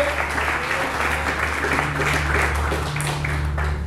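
An audience applauds God during a church sermon, a steady, dense wash of many hands clapping at once with no pauses, over a low sustained hum that runs underneath throughout.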